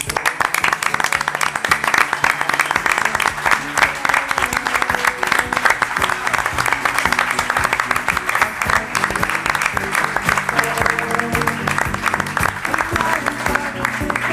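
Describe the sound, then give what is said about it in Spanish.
Sustained applause from an audience, many hands clapping densely and steadily for the whole stretch, loud and continuous without a break. “Y yo creo que la forma de agradecerlo es el aplauso nuestro hacia vosotros.”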